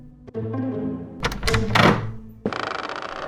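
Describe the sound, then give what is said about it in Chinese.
A latch clicks, then a wooden door groans open with a long, low, wavering creak and some scraping, followed by a steady rattling flutter. No voices. “好了，我我去开门了。”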